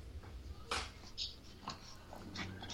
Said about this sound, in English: Somebody's getting sawed in the background. What's going on? I don't know what that is. My, that's my dog humping her,